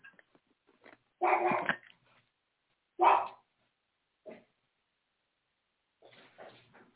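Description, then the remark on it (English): A dog gives a few separate barks with pauses between, a longer harsh one, a sharp bark, a short yip, then softer whimpering sounds at the end. “I've got to get my daughter out from the barking corner.”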